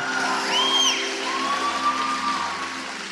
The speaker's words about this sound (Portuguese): Só os velhos estão gritando para ela, né?